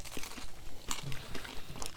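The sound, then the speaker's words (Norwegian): Crisp crunching of a dry, brittle rye crispbread with mustard being bitten and chewed, a few sharp cracks in quick succession over soft crinkly texture, with no talking. “Det knaser, ja. det knaser godt.”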